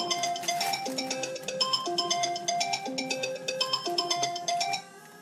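A phone ringtone for an incoming call plays a bright, repeating electronic melody of tonal notes, fairly loud, continuing steadily for about five seconds before cutting off. No one speaks over it.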